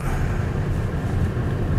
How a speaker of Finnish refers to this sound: aina tietysti tuo sisälokareiden meteli, joka tulee tuosta hiekotetulla alueella aja, ajaessa ja hiekkatietä ajaessa, niin hyvinkin selvästi tähän ohjaamoon läpi. Se on semmoinen, joka olisi varmaan aika yksinkertaista toteuttaa pois,